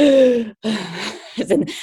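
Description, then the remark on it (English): A person abruptly gasps for breath, acting out sudden breathing trouble while climbing: a breathy rush of air after a brief voiced sound, followed by a couple of ragged, uneven breaths. “or you get like um, problem with your breathing because also like keeping focused on like just uh, doing the slow and good breathing that you don't think about other thing and you suddenly do like”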